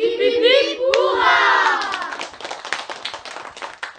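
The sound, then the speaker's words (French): A small group bursts into lively applause, with the schoolteacher among those clapping, many hands clapping quickly and unevenly, with excited children's cheers over the opening moments before the clapping gradually thins and fades. “Même la maîtresse, toujours coincée dans son livre d'histoire, nous applaudissait.”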